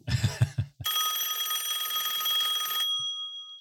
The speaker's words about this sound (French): et ça sonne le téléphone